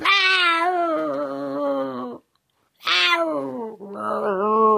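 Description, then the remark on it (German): A tomcat yowls loudly: a long, wavering cry, a brief pause, then two more drawn-out, whining wails in quick succession, with no one speaking. “Kater, das, das kann ich doch nicht machen.”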